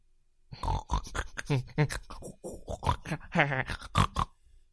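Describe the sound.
A voice imitates a crowd of noisy little pigs heard over the telephone, a rapid, uneven run of grunts and oinking squeals in loud, choppy bursts lasting several seconds.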